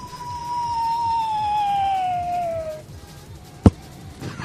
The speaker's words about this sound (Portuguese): Esse é o, coiote caindo do Papaléguas.